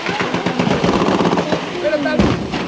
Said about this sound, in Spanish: Nueva incursión con fuego de gruesa munición por parte de la... Ahí violentamente hace impacto nuevamente la tanqueta. Escuchen.